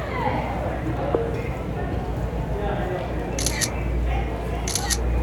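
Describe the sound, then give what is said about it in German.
Two quick bursts of camera shutter clicks, each a rapid double snap, along with typing, cut through a steady background of indistinct crowd murmur and low rumble in a busy public space. “Ich höre Fotogeräusche, ich höre Tippen.”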